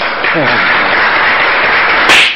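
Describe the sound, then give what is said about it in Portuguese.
A burst of applause from a group for Brazilian politician Tabata Amaral at a flood-hit area, steady, dense clapping that fills the whole moment and ends abruptly, with a brief voice cutting in near the start. “Uma salva de palmas.”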